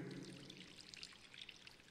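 Water pours steadily into a baptismal font during a baptism, a continuous splashing trickle with bright bubbling detail, moderately soft, with no voices over it.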